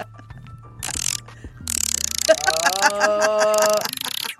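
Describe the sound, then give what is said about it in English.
A person imitates a squirrel's chattering call, a fast, rattling string of clicks and squeaky chirps lasting a couple of seconds, loud, after a brief quieter buzzing at the start. “Make make your squirrel call again.”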